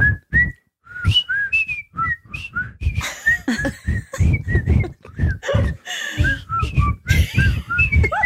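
Several people whistle the bouncy theme song of The Andy Griffith Show together in short, rhythmic phrases, fairly loud, with some scattered laughter and rustling noise underneath.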